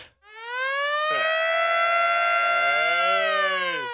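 A loud alarm siren, played as the '532 alarm', rises in pitch and holds a steady, piercing wail with rich harmonics, a second lower tone sliding in partway through, then begins to fall off at the end. No one speaks.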